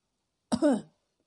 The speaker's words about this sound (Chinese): 丞相咳嗽了一声，说：